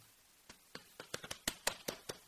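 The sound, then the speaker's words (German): Two people in a studio clap briefly and unevenly, about ten sharp claps scattered over two seconds, their hands slightly out of sync; a sparse, half-hearted round of applause with no talking. “Ein kleiner erbärmlicher Applaus. Von uns beiden.”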